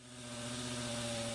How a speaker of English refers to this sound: That's the sound of death. Two mosquitoes. Twice a week, pest management journeyman Staff Sergeant Alex Hooper drives his mosquito fogger around Kunsan Air Base with one goal in mind Destroy all mosquitoes.